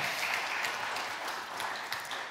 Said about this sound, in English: I'm gonna hold you accountable for that applause.